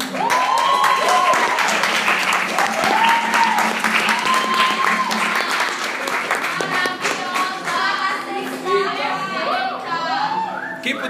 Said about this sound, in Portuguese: Então eu queria que você recebesse uma grande salva de palmas ao Senhor,